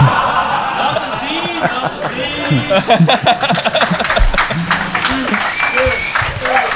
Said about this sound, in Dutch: Applaus.